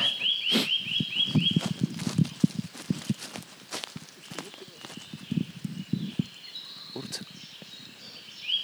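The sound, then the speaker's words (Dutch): A Eurasian nuthatch calls in a quick run of clear, repeated piping notes, then briefly again later, over crunching footsteps and faint voices. “Ah, typisch in de beukenbestanden is de, de boomklever.”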